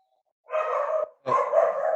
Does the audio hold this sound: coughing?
no